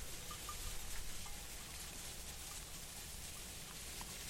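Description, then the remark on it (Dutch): Steady, dense crackling rustle of movement through frozen vegetation, continuous with no talking, faint chirps of small sounds flickering through. “Hoor, hoor het ritselen. Ja. Zeker nu, hè, nu het bevroren is.”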